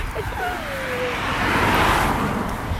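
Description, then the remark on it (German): Steady roadside traffic rumble on a main street, with a car swelling louder as it drives past and a faint whine early on; no clear talking. “Ah, Autos.”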